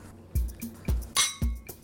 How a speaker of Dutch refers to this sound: Nou, laten wij dan ook maar het glas heffen en klinken voor zij die strijden voor een rechtvaardigere wereld. Nou, proost dames.